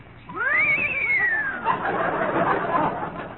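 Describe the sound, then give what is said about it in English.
A human voice imitates a horse's frightened whinny: one high, wavering cry that rises then slides down, followed by breathy, rough noise that trails off. “The frightened whinny of our horses.”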